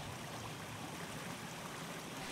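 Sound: river water flowing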